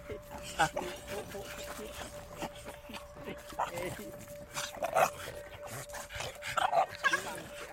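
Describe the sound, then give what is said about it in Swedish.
Several dogs bark, yip and whimper excitedly in scattered bursts as they greet visitors, fairly loud, with people's voices mixed in among the commotion. “Vi möter upp kvinnan en bit bort därifrån hon bor för att hundarna ska få tid att hälsa.”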